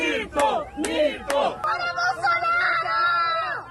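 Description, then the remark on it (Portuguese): A crowd of supporters and critics greeting the president on a visit to the capital of the state of Espírito Santo shouts and yells together in a loud, chaotic mix of cheering and jeering, with several bursts of sharp outcry rising above the steady babble. “tirou fotos, ouviu gritos de apoio e críticas.”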